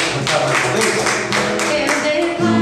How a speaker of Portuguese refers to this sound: Vamos aplaudir Senhor.